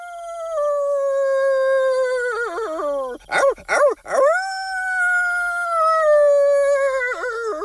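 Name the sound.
werewolf howl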